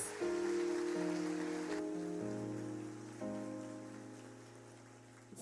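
An audience applauds to praise the Lord during a worship service, a dense, steady wash of clapping that fades slightly toward the end, while sustained keyboard chords shift beneath it. No one speaks.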